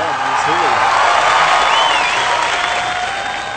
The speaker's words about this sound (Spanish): También demos un caluroso aplauso para la señora Carmen Salinas.